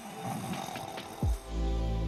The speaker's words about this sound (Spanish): Dormir boca arriba se llama posición supina. No importa si duermes con los brazos hacia abajo y cerca de tu cuerpo, o como una estrella de mar con los brazos sobre la cabeza tu espalda podría molestarte y llevar tus ronquidos al siguiente nivel.